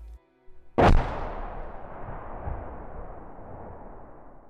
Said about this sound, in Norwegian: Sammen med vanndamp og forbrenningsprodukter slynges radioaktive stoffer ut fra en av de fire reaktorene ved atomkraftanlegget i Tsjernobyl. Eksplosjonen i reaktoren er så voldsom at reaktorlokket på 500 tonn blir sprengt i fillebiter.